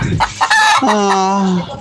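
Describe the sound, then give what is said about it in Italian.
A hen clucks loudly in a radio studio, a few quick clucks building into a longer, drawn-out cackle, with no one talking. “Ma questo gode con la gallina, ma che sei?”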